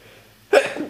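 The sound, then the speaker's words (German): A single sharp sneeze bursts out halfway through after near silence, loud, with a breathy trailing release. “Gesundheit.”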